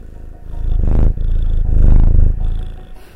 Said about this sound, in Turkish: Bugün biraz kedi gurultularıyla beraber konuşacağım galiba. Çünkü kedim kucağımdan inmiyor.